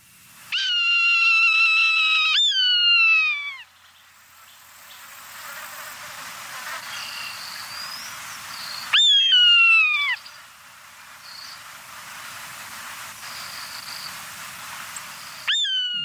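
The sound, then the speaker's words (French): A buzzard, a bird of prey, gives loud, drawn-out mewing cries, each a high whistle sliding downward, three calls spaced several seconds apart over a quiet outdoor background with faint chirps. “Donc, c'est un, euh, un chant assez typique d'une buse ou d'un oiseau prédateur.”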